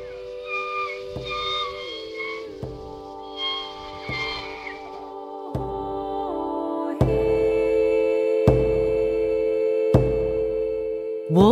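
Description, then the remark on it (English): Orca (killer whale) calls in the Burrard Inlet: high, squealing whistles that bend and slide in pitch, fading into steadier droning tones marked by a few sharp knocks spaced a second or two apart. No one speaks. “wolves of the sea, also known as killer whales, orcas, or blackfish, who hunt in the Burrard Inlet outside Tooth's doorstep.”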